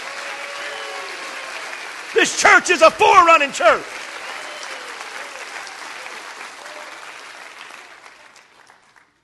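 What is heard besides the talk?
audience applauding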